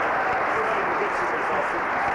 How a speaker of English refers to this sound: Oh, yeah, yeah, the two Huntington Beach sisters. You stand up. Okay. We give you a clap. You did the whole thing.